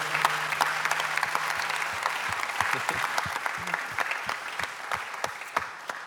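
An audience claps steadily for several seconds, a dense wash of many hands with sharper individual claps standing out, sustained and fairly loud throughout with no voices over it.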